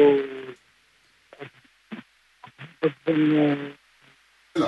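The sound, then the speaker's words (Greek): A caller from Kallithea, speaking on a phone rather than hands-free, comes through a muffled, band-limited telephone line, thin and boxy with the highs cut off, speaking in short broken bursts separated by hissy pauses. “Ναι, γιατί δεν ακούγεστε πολύ καλά. Ναι. Δεν είναι καλή γραμμή.”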